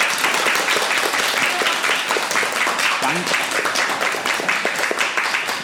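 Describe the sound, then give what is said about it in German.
A group of people claps together on command, a dense, steady burst of applause lasting several seconds, loud and continuous with a faint voice briefly audible underneath. “Bitte einmal auf Kommando klatschen.”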